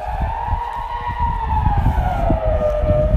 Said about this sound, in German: Also hat man hier im ganzen Dorf diesen Alarm, falls irgendwie eine Katastrophe ist oder so. Da hat sich wieder aus. Das war halt nur, also heute ist halt der Testtag, wo die den Test durchführen für den Alarm.